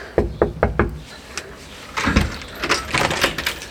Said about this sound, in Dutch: Deurbel is stuk. Even kloppen.